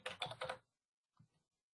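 A quick burst of computer keyboard typing as a password is entered to log in to a license portal, several rapid keystrokes clustered together, followed after a brief pause by two softer taps, fairly quiet.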